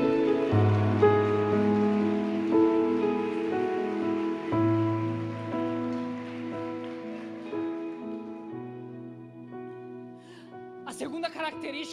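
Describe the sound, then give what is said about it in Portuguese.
An audience applauds the Lord loudly and steadily, a dense wash of applause over sustained keyboard chords that hold and shift beneath it, with a few voices breaking through near the end. “Você que acredita nisso, aplauda o Senhor bem forte.”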